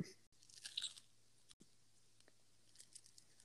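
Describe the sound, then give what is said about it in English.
A crisp crunching bite of a food item, a burst of bright crackly texture followed by a second, quieter crunch of a separate part of the item and some faint chewing, with no talking. “Right, that was two crunches of two separate parts of the item.”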